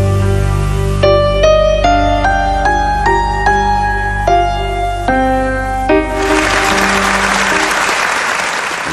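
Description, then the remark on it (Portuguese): Sustained orchestral music with changing chords plays for several seconds, then gives way to a dense, steady wash of audience applause for Nicholas Winton that continues loudly to the end. “agradecimento vem em forma de aplausos demorados e lágrimas.”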